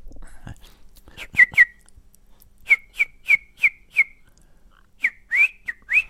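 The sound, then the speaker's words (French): A person whistles a birdlike song imitating a greenfinch: a quick cluster of sharp chirps, a steady series of five evenly spaced whistled notes, then a final burst of chirps, clear. “Est-ce que tu peux euh, m'imiter l'oiseau”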